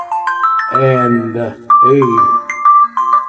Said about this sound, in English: Sorry for the phone going off. Apologize for that. Apologize for that.